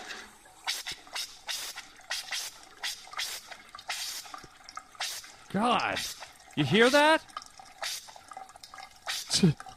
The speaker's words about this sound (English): So that's the that's the uh, that's the air. When they turn off your water, all your water pressure goes away, and your uh, pipes, your water pipes, fill up with air.